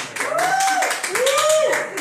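A short burst of audience applause, dense and steady clapping for about two seconds, with two rising-and-falling tonal sweeps, like cheers or whistles, riding over it.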